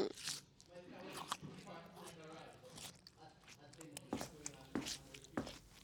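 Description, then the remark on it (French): Crisp crunching of someone biting and chewing a bunch of radishes while checking a watch: several sharp bites spaced irregularly, with wet, squishy chewing in between and a voice murmuring underneath. “Il avale une botte de radis en consultant sa montre.”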